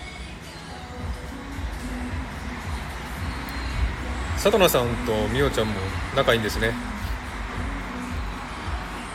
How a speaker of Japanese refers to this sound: マクドナルドのテラスっていうんですかね店の外に出ているんですけどちょっとうるさかったらごめんなさいねあの音が鳴ってますけどで国道沿いの店なので車の音もすごくうるさいのでうるさかったらすいません